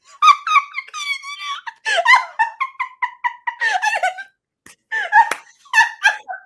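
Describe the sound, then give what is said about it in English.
A rapid series of high, rubbery squeaks like a squeezed cat toy, loud and bouncy, with short bursts of chirping pitch repeating over several seconds and a brief pause near the end. “like a fucking cat toy, just pew.”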